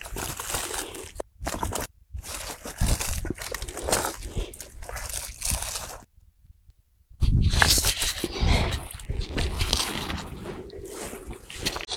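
Loud, steady rush of water flowing at a reservoir, with a broad hissing texture, cutting out briefly a couple of times, including a full second of silence midway, before surging back just as strongly.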